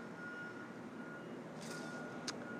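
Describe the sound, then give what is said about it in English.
A truck's reversing beeper sounds as a thin, steady high tone over a low engine rumble, with a couple of short hissing bursts near the end. No one speaks. “The truck agrees.”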